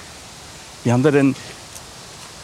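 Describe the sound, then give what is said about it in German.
A steady, even rush of flowing water from a stream and a small waterfall beside a hiking trail fills the background from start to finish, while a person speaks briefly over it. “Da ist der Wasserfall mit dem Bach und dann dahinter haben wir einen kleinen Wasserfall.”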